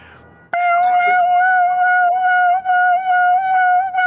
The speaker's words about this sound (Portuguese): Você tenta arrombar essa, essa porta e você escuta o alarme da casa tocar.